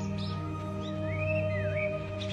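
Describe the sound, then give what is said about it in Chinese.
Birds chirp softly with a few short high calls and rising, wavering whistles over a steady droning, tonal background hum. No one speaks. “跟随着鸟叫声”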